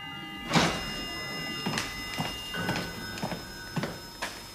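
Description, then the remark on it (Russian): The front door of a house opens with a sharp latch click, then a series of short knocks and rattles spaced about half a second apart over a steady, faintly humming background. “Звук открываемой входной двери.”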